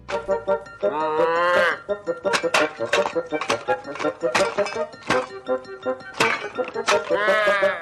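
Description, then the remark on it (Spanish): An angry little cartoon bull from an animated series bellows twice in loud, wavering moos, one near the start and one at the end, with a busy run of sharp thumps and clatters in between. “Y en muchos capítulos salía un torito.”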